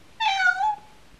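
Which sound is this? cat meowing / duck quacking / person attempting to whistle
cat meowing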